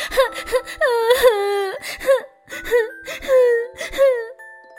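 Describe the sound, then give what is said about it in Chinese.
A high, squeaky voice imitates a tired, hungry mouse crying sadly in an empty hole, with four or five quavering wails that bend up and down in pitch, broken by short gasping breaths. “洞里什么都没有，又累又饿的老鼠伤心的哭了。”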